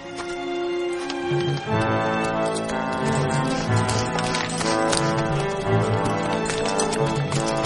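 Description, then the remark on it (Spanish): Horse hooves clip-clop in a steady rhythm as a young man rides his horse across a river, beneath loud, sustained orchestral music that fills the whole scene; no one speaks. “El joven cruza el río a lomos de su caballo mientras el alguacil coloca una flecha en la ballesta.”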